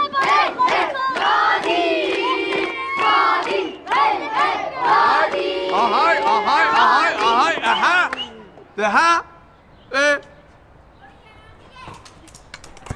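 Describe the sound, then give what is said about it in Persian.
A crowd of excited voices shouts and cheers loudly for about eight seconds, egging on two people fighting each other. The din then breaks off into two short, separate yells before quieting. “افتادن به جون همدیگه به جنگ که سواشون کنید دارید تشویقشون میکنید”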